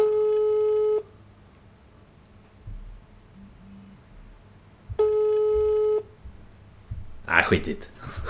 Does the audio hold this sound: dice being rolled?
no